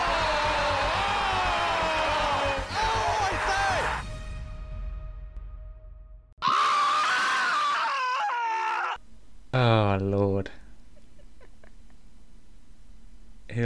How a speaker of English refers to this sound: Listen, I've had that Ray Hudson scream in my documents for months because it was always going to be used again. oh, the brilliance of Ray Hudson! What a commentator!